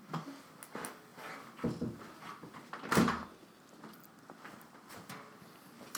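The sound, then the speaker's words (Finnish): A door is pushed shut with a single solid thud near the middle, surrounded by quieter shuffling, light footsteps and small knocks. “Pieni hetki, mä laitan oven kiinni.”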